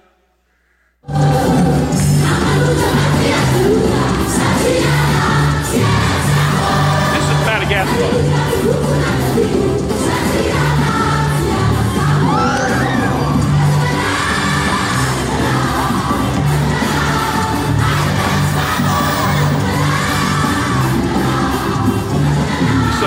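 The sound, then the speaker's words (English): A huge crowd of about 15,000 people gathered on a field in Bangladesh after dark roars continuously. Overlapping shouts, yells and whoops fill the air, with a steady low hum beneath the dense wash of voices for the whole stretch. “dark, you can't even see it all, 15,000 people.”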